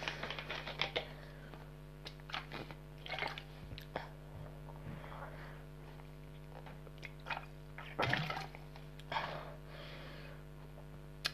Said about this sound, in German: So. Ich trinke jetzt was.